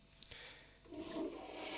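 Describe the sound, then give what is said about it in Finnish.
A toilet flush, starting with a sharp click and then rising into a rushing gurgle of water that keeps swirling to the end, with no one speaking; the sound is set to play whenever someone sends a message. “Ja asioita näköjään tuli internetviestikin mautonta pilaa tekniikan pojilta, että ovat pistäneet tuon vessan vetämisen äänen tulemaan aina, kun jokin lähettää viestin.”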